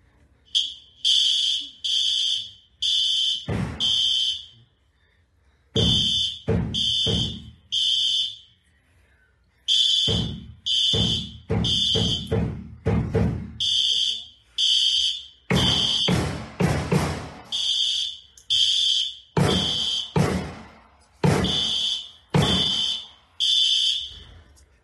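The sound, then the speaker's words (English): A shrill school fire alarm blares in rapid, repeating electronic bursts, loud, with sharp sudden bangs of rifle gunshots breaking in repeatedly between and over the tones; the alarms were not pulled but set off by the sounds and flashes of the rifle being fired. “Shortly after the gunshots started, the fire alarms went off.”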